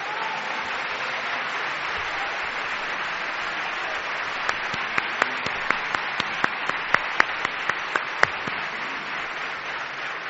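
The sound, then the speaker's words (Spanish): Steady crowd applause runs throughout, a dense wash of clapping, with a burst of sharper, louder individual claps standing out over it in the second half. “en este momento te voy a cortar porque esto sí que se merece un aplauso.”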